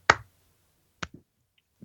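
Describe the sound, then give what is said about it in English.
A slow clap: a few sharp, isolated hand claps spaced about a second apart, the first loudest, the later ones softer, with no talking. “I think one person did the slow clap.”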